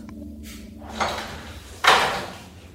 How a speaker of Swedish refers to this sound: Innan dörren till besöksrummet låstes bakom mig nyss var jag tvungen att passera genom ett stort antal grindar, dörrar och rigorösa